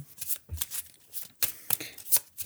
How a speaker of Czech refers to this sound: a musím zamíchat eh, discard pile a jdeme na novo.